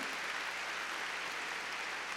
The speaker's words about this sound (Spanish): A ver, démosle palmas fuertes a nuestro Señor.